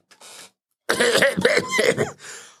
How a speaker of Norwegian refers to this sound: Han hoster og hoster og hoster så voldsomt at han ikke klarer å få fram et eneste ord. Stakkaren med den vonde halsen må bare sette seg ned og, og, og ta seg en liten pause.